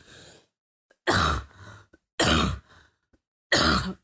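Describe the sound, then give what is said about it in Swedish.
Harsh, heavy coughing, three loud hacking bursts spaced about a second apart with ragged breathy tails and a quieter rasp before them, no talking. “Jag låter som de som hostar i filmer som sen tar ett papper vid munnen och blöder”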